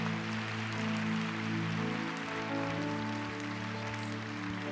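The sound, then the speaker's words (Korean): An audience claps steadily in a dense, even wash of applause offered in thanks and glory to the Lord during a worship service, with sustained keyboard or organ chords holding underneath throughout. “여러분 우리 주님께 한 번 더 감사와 영광의 박수 한번 올려드릴까요?”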